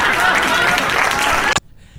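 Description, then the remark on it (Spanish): A loud burst of applause for a member of the Pasión Deportiva team, dense crackling claps spread across a broad wash of noise, lasting about a second and a half before cutting off sharply into near silence. “Eh, la verdad, orgulloso porque alguien que hace parte de nuestro panel, del equipo otro aplauso, de, Pasión Deportiva, sí señor.”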